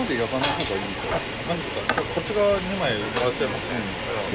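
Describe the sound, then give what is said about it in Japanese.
Fatty beef tongue (toro-tan) sizzles on a yakiniku grill with a steady, crackling hiss running beneath a man's voice as he talks throughout. “トロタンを焼いております”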